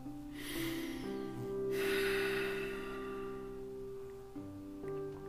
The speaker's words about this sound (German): So, bleibt in dieser Ausrichtung, atmet dreimal tief Ja?